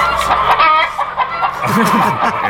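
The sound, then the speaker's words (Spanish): A hen clucks in a steady stream of loud, nasal calls that run continuously for a couple of seconds, with a few lower, warbling notes toward the end. “no lo sé, a ver, las, almas veganas tienen que decir algo sobre la gallina cocoguagua.”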